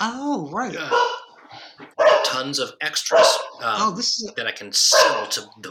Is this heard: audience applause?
no